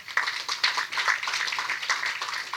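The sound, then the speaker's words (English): Steady applause from an audience: many hands clapping at once in a dense, crackling wash that holds at a fairly even level for a couple of seconds, with no voices. “Big round of applause for her.”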